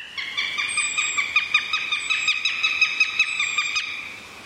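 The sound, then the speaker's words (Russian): A northern goshawk gives a rapid, steady series of harsh, nasal kek notes, nearly twenty in about four seconds, loud, with no talking. “Честно скажу, отличить перепелятника от тетеревятника по голосу сложно, потому что перепелятник звучит вот так, а тетеревятник вот так.”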